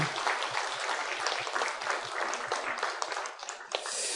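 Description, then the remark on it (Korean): A crowd breaks into steady, dense applause given as glory to God at the close of a week-long camp, many hands clapping together in a loud, continuous wash that holds for several seconds with no voices over it. “우리 어, 지난번에 같이 캠프 때도 하나님께 영광의 박수를 돌렸지만 정말로 우리의 주인 되신 주님께 감사하면서 이번 지난 한 주간 캠프를 통해서 인도해 주신 것 감사하면서 우리 하나님께 영광의 박수 올려드리겠습니다”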